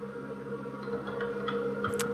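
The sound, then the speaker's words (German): Scattered, light keyboard taps click irregularly over a steady electrical hum as a man types, a handful of soft keystrokes with no voices. “Er tippt schon wieder ja.”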